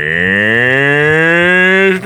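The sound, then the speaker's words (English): A person imitates a cow with one long, loud, droning moo that holds steady for about two seconds, its pitch creeping slightly upward before cutting off abruptly. No talking accompanies it. “I thought you were just going to do like a cow noise.”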